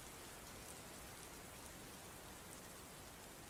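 Real heavy rain pours down at a home in a steady, dense hiss, the drumming of countless drops blending into one continuous wash of noise with no voices or pauses.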